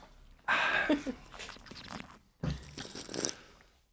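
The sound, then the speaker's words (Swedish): Someone slurping a sip of champagne with air: two noisy, wet slurps. The first is longer and hissier, followed by a brief pause and a second slurp. “Jag fick inte riktigt till den här sörplingen tror jag.”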